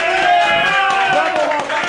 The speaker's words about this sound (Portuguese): Vai, coloca uma palminha, alguma uma coisa. Uma palminha? Aquela palma que eu coloquei foi tão xoxa.